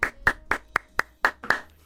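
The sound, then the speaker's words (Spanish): Audience applause in a steady rhythm, about eight loud, sharp claps falling in unison on an even beat, with no voices over them. “Un fuerte aplauso de nuevo, extraordinario.”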